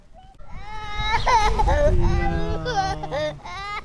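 A young child cries and whines while visiting the lions' indoor enclosure, a strained, wavering wail that rises and falls for several seconds with brief catches of breath, sounding upset and insistent.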